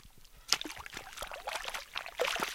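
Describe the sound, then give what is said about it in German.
Water pours and splashes in uneven bursts as shallow surface water is drawn from a simple scoop well, with sharp sloshing spikes and a steady trickling wash in between, fairly loud, no voices present. “Oberflächliches Wasser wird mit einfachen Schöpfbrunnen gewonnen.”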